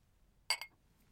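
Two bright glass clinks in quick succession, crisp with a short ringing tail, as two glasses of Cristal champagne are touched together in a toast; nothing else but faint background hiss.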